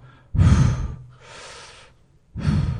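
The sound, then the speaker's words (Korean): A person imitates the breathing of a dolphin surfacing for air beside a sailing boat at sea at night: three forceful breathy puffs, the first and last loud and sharp like exhalations, the middle one a softer, longer inhale, with no talking. “그리고 옆에 보니까 그 돌고래가 아~ 숨쉬러 올라오면 네. 숨소리가 들리는 아.”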